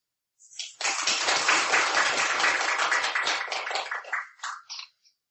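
A burst of audience applause, many hands clapping in a dense, steady patter for about four seconds before tapering off into a few scattered final claps.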